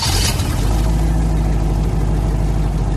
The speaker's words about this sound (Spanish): Encendemos motores.